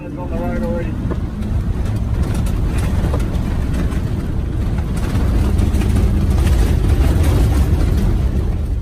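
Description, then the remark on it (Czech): A New South Wales fire truck's engine roars loudly and steadily as firefighters drive quickly through a blazing bushfire in Australia, flames lashing at the vehicle, with crackling bursts and rushing noise throughout and muffled voices faintly underneath. “Natočili ho hasiči z Nového Jižního Velsu, kteří rychle projížděli hořící buší a plameny šlehaly i na jejich auto.”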